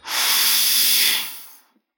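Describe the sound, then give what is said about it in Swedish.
A single long, breathy exhale, fairly loud, steady for over a second before trailing off into silence: a deep breath sighed out from the belly during a breathing exercise. No one speaks. “Ah, kom igen nu …, det låter ingenting. Du bara andas.”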